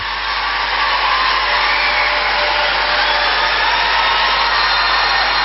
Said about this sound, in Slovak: očakávame príchod Svetého Otca. ktorý práve teraz sa objavuje na balkone Apoštolského paláca za obrovského potlesku